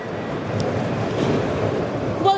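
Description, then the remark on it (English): Steady rushing surf and gusting wind fill the air outdoors at Gold Beach with the tide right up, a broad continuous roar with no voices, ending in a brief faint tonal whine. “I'm just going to show you the view here of Gold Beach. So this is where the British had landed. Now the tide is right up, but this morning it was all the way down, and it's quite a large beach”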